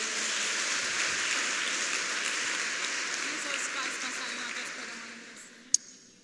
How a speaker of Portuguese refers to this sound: Então, dê uma salva de palmas para o pastor.